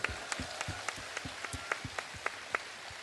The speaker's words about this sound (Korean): 예, 예. 이럴 때 박수 주십시오.